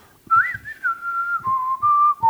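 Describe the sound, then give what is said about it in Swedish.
A whistled western melody from the soundtrack of the film The Good, the Bad and the Ugly, a clear tune with sliding, held notes and a few pitch steps, backed by soft low rhythmic thumps. “Så han tog, hittade ett annat ljud istället, det här visselljudet.”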